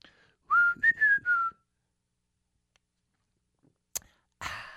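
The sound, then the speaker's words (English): A person whistles a short tune of a few sliding notes, then quiet follows with a sharp click and a soft rustling noise at the end as they sip tea. “Just like do a little whistle, sip a little tea.”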